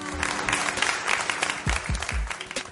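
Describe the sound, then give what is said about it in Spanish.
Audience applause after the announcement that the mate emoji is now available fills the whole stretch, a dense steady patter of many hands clapping at an even loudness, with a few low thumps near the end and no voices. “No, no, yo en realidad pensé en, aplausos.”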